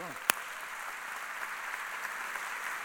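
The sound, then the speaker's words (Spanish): An audience applauds Christ with a dense, steady wash of clapping that holds for a few seconds, opening with one sharp, louder clap. “Vendían un aplauso a Cristo.”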